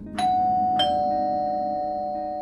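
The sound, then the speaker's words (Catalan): A flat's doorbell chimes twice in quick succession, two bright tones whose ring lingers and slowly fades, heard clearly with no voices. “Va fer flams de pòlvores i just els ficava a la nevera quan va sonar el timbre.”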